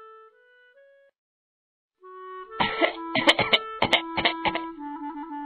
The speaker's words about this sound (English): … coughed all night long.